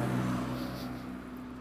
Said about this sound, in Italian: la pace è quasi assoluta, quasi, nel senso che ogni tanto una macchina passa, però è solo il fuggevole attimo